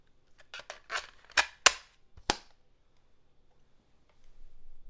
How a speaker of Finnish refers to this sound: Mä laitoin kasetin Walkmaniin.